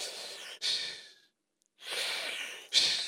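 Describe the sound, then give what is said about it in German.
A voice imitates heavy breathing: two long, airy breaths separated by a short silence, each with a sharper rasp near its start, fairly loud with no speech. “Und dann im Morgengrauen, dann hört er auf einmal ein Atmen”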